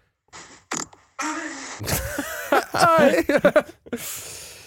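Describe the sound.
A recorded fart plays back through a speaker: a string of raspy, sputtering bursts and a squeaky, wavering toot in the middle, with people laughing and reacting over it.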